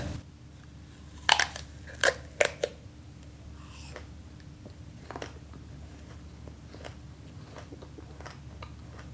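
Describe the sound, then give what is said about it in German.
A small crisp apple from an organic shop is bitten to break a fast, giving a few sharp crunches early on, followed by quieter, softer chewing sounds spread over several seconds against a low steady background hum. “So, zurück die und ich esse jetzt das Äpfel.”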